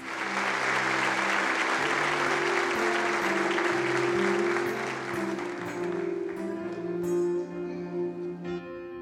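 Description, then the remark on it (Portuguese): An audience applauds the Lord loudly and steadily in worship, dense clapping over sustained organ or keyboard chords, the clapping thinning toward the end as the music continues. “Aplauda o Senhor.”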